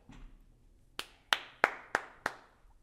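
Five sharp hand claps from one person, evenly spaced, ringing out crisply after a short quiet start, with no talking, given as mock standing applause for a music documentary on Netflix.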